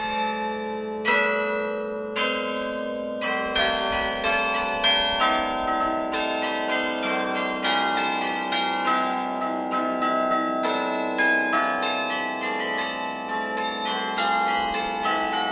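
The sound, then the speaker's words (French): The carillon bells of Grézieux-la-Varenne, played by a carillonneur, ring out a steady melody, one struck note after another with long shimmering overtones overlapping, loud, with no voices. “Un carillonneur s'installe pour faire sonner les cloches en musique.”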